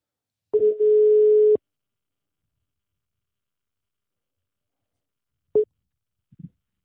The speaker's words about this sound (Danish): Og nu ringer jeg til ham, så vi kan komme i gang med dagens afsnit.